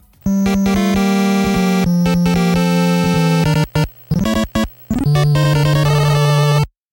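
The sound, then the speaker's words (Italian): A chiptune track from the soundtrack of Mega Man, a 1987 video game developed and published by Capcom, first released for the Nintendo NES, plays: buzzy square-wave melodies with bright, rich harmonics, fast note runs and brief stops, loud throughout with no voices. “Adesso indossiamo i nostri caschi futuristici e carichiamo al massimo il nostro Mega Buster e ascoltiamoci una delle tracce della colonna sonora.”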